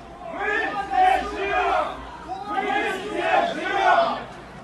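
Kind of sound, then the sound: crowd, crowd shouting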